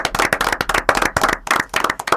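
Audience applause: a steady burst of many hands clapping, dense and fairly loud, with sharp overlapping claps throughout and no voices.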